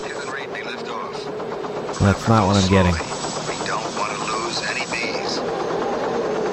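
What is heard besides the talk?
helicopter rotors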